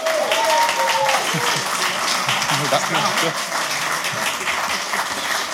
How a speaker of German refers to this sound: Großen Applaus.